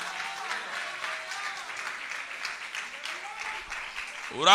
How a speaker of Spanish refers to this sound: O oh, denle el aplauso al que vive si tú lo crees.